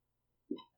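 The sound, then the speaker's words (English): A dog lying down: one soft, dull thump followed by a short, bright metallic ring, like collar tags clinking, lasting well under a second with silence before and after. “that's our dog laying down.”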